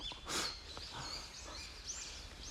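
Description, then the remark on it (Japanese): Several birds frolic, chirping and calling back and forth outdoors, with a brief rustling burst early on and a soft, steady background hum. “鳥が戯れている 楽しそう”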